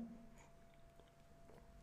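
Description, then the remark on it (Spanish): Quiet sips of coffee from a cup, a few soft slurping mouth sounds over a low steady electrical hum, with no talking. “Voy por otro sorbo en mi taza de café platicado.”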